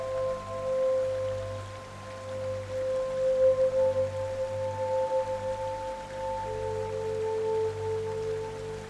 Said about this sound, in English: You embrace the rain as it feels peaceful and soothing. You take a moment to enjoy the rain as it brings a smile to your face.